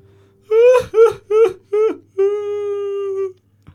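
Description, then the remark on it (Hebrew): A young man plowing a stony field wails and sobs uncontrollably, four short heaving sobs breaking into one long drawn-out cry. The sound is loud, with no talking around it. “מה לך כי תבכה ללא מעצורים?”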